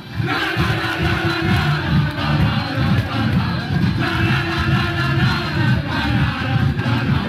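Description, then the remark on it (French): A large crowd of fans sings and chants together in celebration, a loud, dense wall of voices holding a steady melody of a well-known older song throughout, with shouts and cheers mixed in. “Et là, pour euh, toutes les images euh, de joie et les sons qui nous reviennent sont célébrés sur, sur une chanson qui est assez connue, ancienne aussi,”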